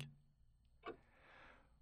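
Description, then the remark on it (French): Quiet, slow ticking of an old pendulum clock in Québec, two sharp clicks just under a second apart, against a soft background hush with no voices. “Aujourd'hui, je regrette que mon père ait pas pu s'endormir une dernière fois au son de l'horloge de son enfance.”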